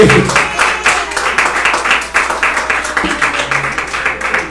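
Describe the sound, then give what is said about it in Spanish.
A church audience claps hands together as an offering of applause to the Lord, in a steady, sustained burst, many palms striking at once with a fast, slightly uneven rhythm that fills the space for several seconds. “Él ofrenda de palmas al Señor”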